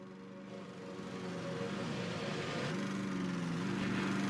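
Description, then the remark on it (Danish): A lawn mower engine drones steadily throughout in the trailer for the game Lawnmower Game Next Generation, its pitch wavering slightly up and down as it runs, with no voices over it. “Som, som man kan høre på traileren, så er det egentlig bare lyden af en græsslåmaskine.”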